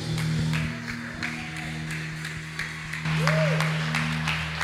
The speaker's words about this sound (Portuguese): Glória a Deus. Amém. Aplauda mesmo ao Senhor.